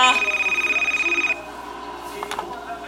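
A telephone rings with a loud, high-pitched, rapidly trilling bell for just over a second, a call from work for a young couple living in Rio de Janeiro, then cuts off, leaving faint background noise with a few soft clicks.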